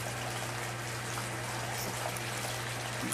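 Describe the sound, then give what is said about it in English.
A steady, quiet stream of cold water runs continuously from a tub spout, splashing on a person in the tub, with a soft splashing hiss and a faint low hum underneath, and no one speaking. “sucks having that cold water out of the spout splashing on me, too, let me tell you.”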